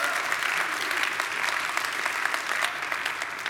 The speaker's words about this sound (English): Thank you for being up here. Give them one more round of applause. Thank you, guys.